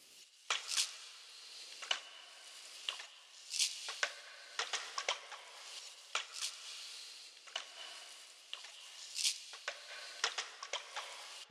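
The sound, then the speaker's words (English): A quiet lo-fi percussion loop of brushed strokes and shaker hits, made from chopped recording sections layered with brush foley and an extra shaker, processed with compression and reverb. Crisp and high-pitched, repeating in a loose rhythmic pattern with no deep kick or voices. “I've then chopped out the best sections of this stream, and then I've layered this with the brush foley and an extra shaker sound.”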